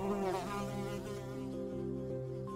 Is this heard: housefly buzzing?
yes